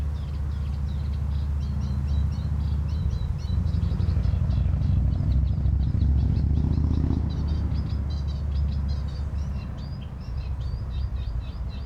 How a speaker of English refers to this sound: Yes, now I'm sure the Eurasian reed warbler lives here in the Park. You might hear the traffic and the background. It's, I'm just near to the road, the busy road, and the reed warbler doesn't seem to care at all